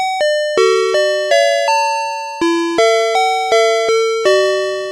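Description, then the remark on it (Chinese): The FamilyMart convenience store entrance door chime melody played on piano: about a dozen bright, ringing notes in a steady, cheerful jingle, each struck and decaying, with no voices. “好，认出来了吼，这个是全家。”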